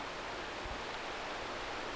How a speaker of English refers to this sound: She loved to come here and play in the waterfall, collect pretty stones from the river, and swim after the fast little fishes.